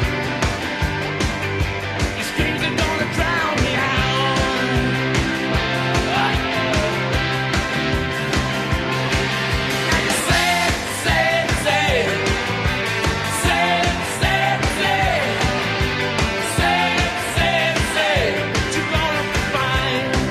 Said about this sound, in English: you guys hearing his bass drum?